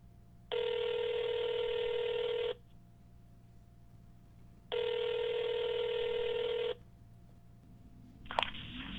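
A telephone call rings on the line: two steady, buzzy electronic ring tones of about two seconds each, separated by a pause, followed by a short click as the call goes to voicemail. No voices.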